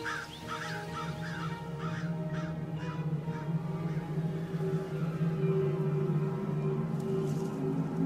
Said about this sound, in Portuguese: É, ah, essas aves, elas são. É, são o quê? Urubu? Corvos, que também costumam ir atrás de carniça.